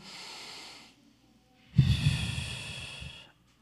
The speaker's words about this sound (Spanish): A ver, yo te invito, respiren esta mañana. Suelta. Una vez más.